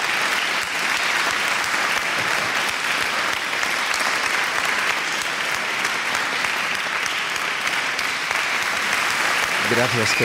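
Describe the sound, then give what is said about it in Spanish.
Sustained, dense applause from a large audience giving a standing ovation fills the whole stretch, loud and steady with no letup, and a voice briefly emerges near the end. “Ya te digo, el aplauso es la comida del artista.”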